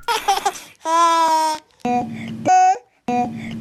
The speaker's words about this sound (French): Un bébé qui fait des sons bizarres, hein, comme tous les bébés. Alors lui, Matt Macmillan, il a enregistré les bruits bizarres de son bébé.